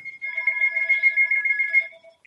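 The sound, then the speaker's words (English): A mobile phone ringtone chimes steadily for about two seconds, a bright electronic tone with layered harmonics, clear, then cuts off with a brief final blip. “You gotta get that. Yeah, Whose phone sorry.”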